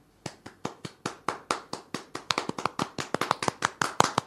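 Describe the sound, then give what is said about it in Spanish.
Applause sound effect: sharp, crisp handclaps begin as a steady, evenly spaced beat, then grow quicker and denser, building into brisk applause with no voices. “Voy a a ponerle meto unos aplausos.”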